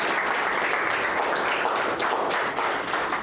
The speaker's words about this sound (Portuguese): Aplauda ao Senhor. Glória a Deus.